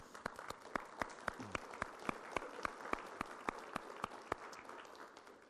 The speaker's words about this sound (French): Et puis, je sais qu'il a mis des gros, gros efforts. Le dîner était excellent. J'aimerais bien qu'on donne une bonne main d'applaudissement, s'il vous plaît.